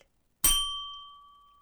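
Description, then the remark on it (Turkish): A single bright bell ding strikes sharply after a short silence, then rings out with a clear sustained tone that slowly fades. No voices are present. “Gelsin zil.”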